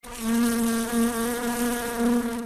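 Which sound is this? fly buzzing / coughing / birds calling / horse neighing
fly buzzing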